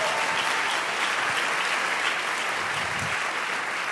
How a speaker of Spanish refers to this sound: Muchas gracias. Denle un aplauso a ellos, por favor. Muchas gracias por venir.